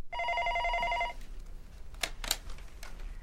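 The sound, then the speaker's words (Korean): A telephone in the teachers' office of Taesan High School rings with a bright, steady electronic trill lasting about a second, then stops, followed by a few faint clicks and handling noises. “강북 지역에선 그래도 명문고 축에 드는 태산고가 졸지에 선생님 성희롱 폐륜 학교로 전락하자 학부모들의 항의와 비난 전화가 빗발쳤다.”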